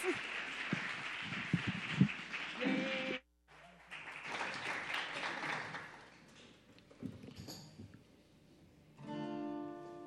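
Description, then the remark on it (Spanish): An audience at a Radio UNAM Intersecciones broadcast claps loudly to encourage young performers for about three seconds, pauses briefly, then resumes and gradually fades as some scattered noise follows and music starts near the end. “Fuerte aplauso, por favor, también para animarlos.”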